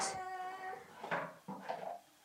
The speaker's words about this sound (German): die Tätigkeit in der Küche mit Geschirr auszuräumen.